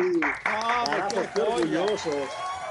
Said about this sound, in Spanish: Ovación calurosa, carajo.